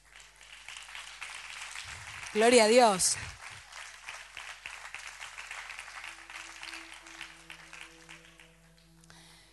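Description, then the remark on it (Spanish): A crowd applauds the men who say they want to marry, a steady, dense patter of claps that gradually thins toward the end, while a voice shouts loudly over it for a moment. “Eso es una bendición, es para aplaudirlo.”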